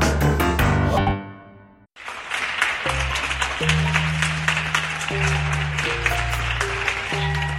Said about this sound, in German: Schweiz klatscht. Und zwar wortwörtlich für all die Heldinnen und Helden, die in diesen außergewöhnlichen Zeiten Außergewöhnliches leisten.